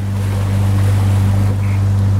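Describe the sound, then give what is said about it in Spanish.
A boat's engine drones steadily, with a constant low hum beneath the rush and wash of sea water and a breath of wind, with no pauses, as the boat heads away from North Korea toward Japan. “Nos quedamos sentados en la cubierta, viendo cómo Corea del Norte se alejaba cada vez más de nosotros.”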